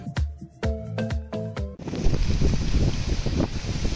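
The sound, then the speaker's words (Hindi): A few short tonal blasts give way to a loud, steady roar of strong storm wind from Cyclone Nisarga in Maharashtra, India, buffeting the microphone, continuous, with no voices. “तेज हवाएं गरजता समंदर उड़ती हुई छतें उखड़ते हुए पेड़ मोबाइल सेवाएं ठप वाहनों की आवाजाही रद्द एनडीआरएफ की तैनाती और खौफ जदा लोग कुछ ऐसा ही मंजर दिखा निसर्ग तूफान से दहले महाराष्ट्र के कई इलाकों का”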